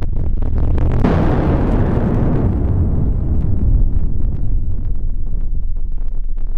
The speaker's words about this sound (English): The atmospheric shock wave recorded by these barographs lasted for five days. If you sped the recording up, it might have sounded like this.